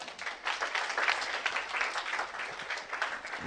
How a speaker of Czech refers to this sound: díky, tak pojďme ještě jednou zatleskat.